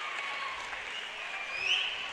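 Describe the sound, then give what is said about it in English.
Steady applause from a large crowd in a basketball arena during a game, a dense wash of clapping with a faint whistle rising near the end, moderately loud and continuous throughout. “Yeah, quite a quite a crowd here.”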